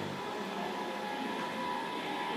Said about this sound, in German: ja, und da kommt unser Zug.